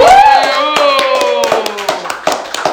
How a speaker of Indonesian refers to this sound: Tepuk tangan dong